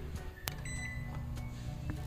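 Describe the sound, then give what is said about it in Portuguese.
A sharp click and a brief electronic beep from a microwave oven, followed by the steady low hum of it running as it boils a cup of milk, with no talking. “Mas eu vou fazer o seguinte, eu vou pegar o copo número 3, vou colocar aqui no, no forno de micro-ondas e a gente vai ferver.”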